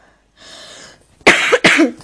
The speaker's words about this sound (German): nicht wundern, ich habe Husten. ja, leider.